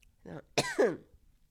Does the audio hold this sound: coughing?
yes